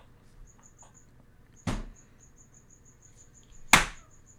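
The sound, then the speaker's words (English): A cricket chirps loudly in a steady, rapid pulsing trill that runs the whole time, interrupted by two sharp, loud knocks, a hand smacking the wall to try to stop it, a couple of seconds apart. No one speaks. “I don't know if you guys can hear the cricket. It's very loud.”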